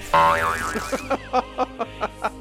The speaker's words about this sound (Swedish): Alltså jag gillar ju det där ljudet, det där doing. Men, men jag, jag vet inte, det är inte så, det är inte så passande riktigt, alltså det är mer kul!